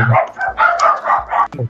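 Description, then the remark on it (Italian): A dog barks several times in quick succession, loud, the sharp yaps coming in an uneven rapid string with no talking over them. “Ah, questo qui non è il mio cane, eh?”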